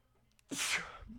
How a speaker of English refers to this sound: oh my god, that was a violent sneeze.